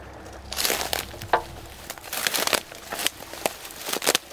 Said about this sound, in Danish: Men noget af alt det her man kan høre måske, hvordan det knaser, når jeg træder herind. Og det er jo bare sådan en hel masse gamle øh, visne grene, der ligger herinde.